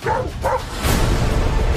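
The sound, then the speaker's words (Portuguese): A person mimics a dog, letting out two quick barking yelps followed by a low, rough growling rumble, all loud with no other talk. “Aprendi a falar cachorrês.”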